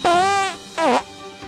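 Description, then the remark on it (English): Two loud, squeaky fart sounds with no talking: a long, steady, high-pitched toot, then a shorter one whose pitch dips and wobbles before it cuts off. “Look, this is how farts are formed every day.”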